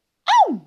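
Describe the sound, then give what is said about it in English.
A single loud, voiced sneeze bursts out after a moment of silence, its pitch sliding sharply downward as it fades into a brief trailing breath. “goodness me! Bless you, bless you.”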